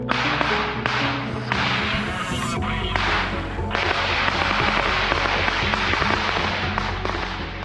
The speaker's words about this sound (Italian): Lo stesso giorno diffondono questo video falso che state sentendo si sente una mitragliatrice e i separatisti dicono che è uno scontro con dei sabotatori dell'esercito ucraino intenti a liberare nell'aria dei cilindri di cloro